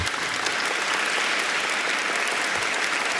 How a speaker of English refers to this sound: So, round of applause for me.